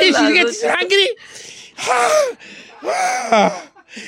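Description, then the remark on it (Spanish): A voice imitates someone with a knife in the throat choking on blood: several strained, gurgling vocal bursts broken by raspy, breathy intakes, loud, with no ordinary speech. “Y empieza así la, el chorrote de sangre y el cuchillo encajado y él se empieza a ahogar”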